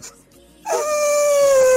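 An angry elephant charging a safari vehicle lets out a loud, sustained trumpeting blare that starts abruptly after a brief quiet moment and holds steady to the end, with no one talking.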